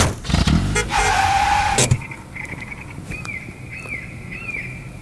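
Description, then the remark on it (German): A loud car sound effect revs and whooshes past for about two seconds, then cuts off, leaving a quieter background of high chirping, bird-like tones. “Und ich würde sagen, wir besteigen mal wieder das äh, Podcast-Mobil. Ja. Und bewegen uns dahin.”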